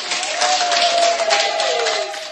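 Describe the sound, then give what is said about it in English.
Nurses clapping steadily in celebration, a dense, continuous patter of applause at an even volume, with a thin sustained tone running underneath that dips slightly near the end. “This is the nurses clapping.”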